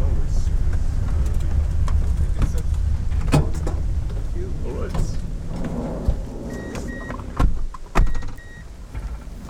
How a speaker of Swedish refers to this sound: Nu är det dags att sluta snacka, hoppa in i minibussarna och vi ger oss av ut i vargskogen.